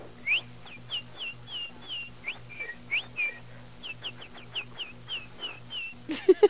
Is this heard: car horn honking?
no